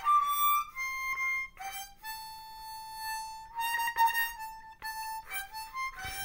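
A harmonica plays a short run of held, reedy notes, shifting pitch a few times with brief breaths between phrases, clear with no talking.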